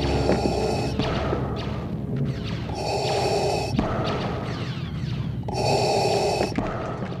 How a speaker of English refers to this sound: which has actually been breathing through a scuba tank regulator. That sound was then taken back to the studio and pitched down and became the iconic breathing loop of Darth Vader.